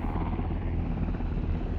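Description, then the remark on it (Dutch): A Black Hawk medevac helicopter arriving from Kandahar with parajumpers aboard; its rotor thuds in a steady, rapid beat, loud, with a constant engine roar filling the background and no voices. “Toen eigenlijk de medevac heli kwam, eh, dat was, die is vanuit Kandahar gekomen. Een speciale black ook is dat.”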